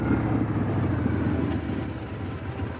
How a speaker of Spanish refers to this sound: James llega con la moto.